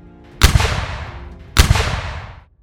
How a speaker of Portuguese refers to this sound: Tiros de canhões cortaram os ares, atingindo o navio mercante. Eles revidaram com o pouco poder bélico que possuíam, mas não tiveram a menor chance.